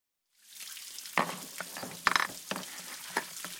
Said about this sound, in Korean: 엄마가 말하는 도중에 치수 씨는 물을 다시 세게 틀고 싱크대 위에 널린 그릇들을 죄 끌어다 작심하고 설거지를 시작했다.